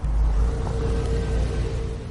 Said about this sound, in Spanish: Un coche avanza por un camino bajo el cielo amarillento. Un coche pasa junto a una caseta.